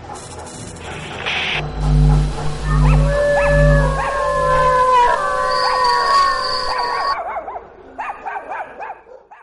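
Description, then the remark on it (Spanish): A pack of dogs howls together in long, overlapping, wavering cries over a low rumble, breaking into shorter whimpers and yips toward the end. “son muchos perros. No podremos con ellos, cabrón.”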